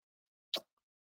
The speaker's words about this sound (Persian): دوستان ببخشید من جلوی دوربین توف میکنم ولی لایق این قرآن لایقشه